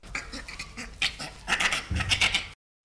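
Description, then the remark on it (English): A bonobo laughing in a quick series of breathy, raspy pants mixed with short clicking sounds, fairly loud, with no one talking. “Well, let's listen to the bonobo.”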